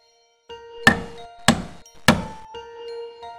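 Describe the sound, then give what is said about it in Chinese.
Three loud, evenly spaced knocks on the door of a room, each a sharp thud, over a faint steady tonal hum in the background. “” 但敲门声仍在继续。”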